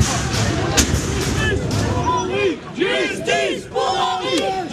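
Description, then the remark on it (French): A crowd of about fifty relatives of Henri L'Enfant shouting angrily all at once in a courtroom as a gendarme is acquitted, loud, with raised overlapping voices and sharp cries rising and falling in a continuous uproar. “Dès que le mot acquitté est prononcé, la famille laisse éclater sa colère dans la salle d'audience.”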